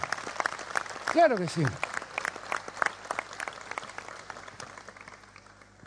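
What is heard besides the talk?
audience applause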